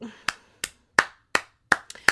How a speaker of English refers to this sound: just gonna clap it up right now for our queen. Our queen, Elizabeth Warren, is back.